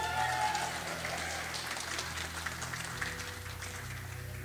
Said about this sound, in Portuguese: Palmas para Jesus.